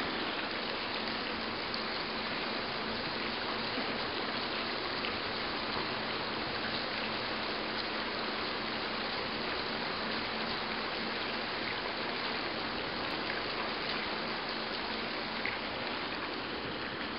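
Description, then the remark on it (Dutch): Steady rushing and splashing of water leaking through a lock gate between the Maas and a small harbour basin, the gate overgrown below the waterline and replaced in 1989; a dense continuous hiss with faint trickling detail and a soft low rumble underneath, unchanging throughout, with no voices. “Maar de sluisdeur zelf, tussen de Maas en het haventje, die lekt. Dus geluid is er toch.”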